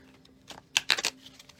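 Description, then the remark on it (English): A deck of reading cards being shuffled before a card is drawn, a few quick papery riffles and snaps in a short uneven cluster, soft, with no talking. “just gonna shuffle them here a little bit shuffle shuffle shuffle every day i'm shuffling shuffling and that way we can draw a card”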